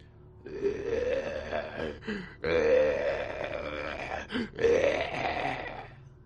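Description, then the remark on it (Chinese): A blood-wolf zombie's slurred, guttural low moan, drawn out over about six seconds in three rough swells with brief breaks, the pitch creeping upward as it goes; loud and alone, with no talking. “突然，一声含糊不清的低吟在风不觉的身后响起。”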